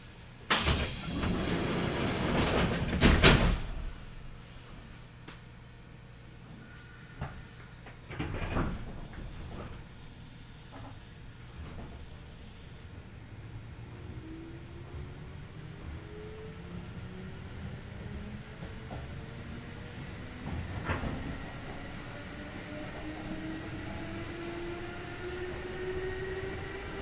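A Kintetsu Nagoya Line all-stations local train, running between Shiohama and Shiroko, pulls away from Nagonoura station with a few heavy clunks and door thuds at first, then a rising motor whine as it accelerates, settling into a steady rumble and clatter of wheels on rails.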